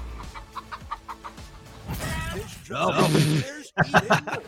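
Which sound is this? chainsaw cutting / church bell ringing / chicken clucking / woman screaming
chicken clucking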